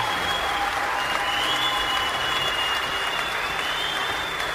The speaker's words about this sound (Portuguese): Editor, uma salva de palmas pro Paulo Azac.